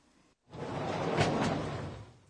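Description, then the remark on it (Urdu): A person pushes a sliding door open in one steady rolling slide lasting about two seconds, a fairly loud rumbling rasp that swells slightly midway and then stops, with no voices. “یہ ایک شخص کی سلائیڈنگ ڈور یعنی کھسکنے والا دروازہ کھولنے کی آواز ہے جی بالکل جاپانی میں اسے اس طرح کہا جاتا ہے گارا گارا”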